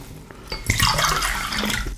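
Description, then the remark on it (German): Water pours steadily into a glass for about a second and a half, a splashy gurgle that starts abruptly and then tapers off. No one speaks. “Gutes Wasser. Willst du auch noch ein bisschen? Ja. Wasser kann man immer gebrauchen.”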